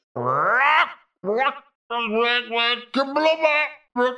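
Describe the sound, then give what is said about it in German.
A voice loudly imitates a frog-like Bullywug creature croaking, with five drawn-out, squawky bursts in quick succession, the first rising sharply in pitch. “Er dreht sich zu euch rum und quakt laut auf”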